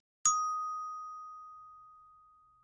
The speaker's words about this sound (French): Appuyez longtemps sur le bouton du milieu pour dicter le nom. Parlez après le bip.